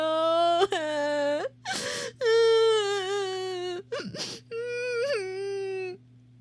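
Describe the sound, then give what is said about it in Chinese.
A voice acts out a little princess's loud, heartbroken crying over her golden ball lost in a deep well: long, high, wavering wails broken by sharp, ragged gasps for breath, rising and falling in a sobbing rhythm with no words. “他于是哭起来，哭得越来越响，哭得伤心到了极点。”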